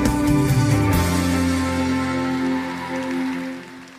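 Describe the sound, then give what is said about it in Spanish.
Loud, dense applause from a Christian church audience in Mexico welcoming the word of God, a steady crackling wash over sustained musical chords, holding strong for a few seconds before tapering off at the end. “Recibamos con un fuerte aplauso la palabra de Dios.”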